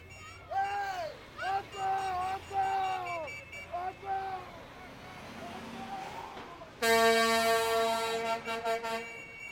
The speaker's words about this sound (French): Je retrouve Joe Maniz qui m'explique le but ultime du piquetage faire klaxonner les gros camions. Lui, il prend ça pas mal au sérieux.